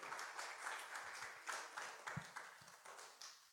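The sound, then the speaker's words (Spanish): A crowd at a religious service applauds the Lord steadily, many hands clapping in a dense, continuous wash with a few sharper claps standing out, moderately loud throughout. “Dale un fuerte aplauso al Señor.”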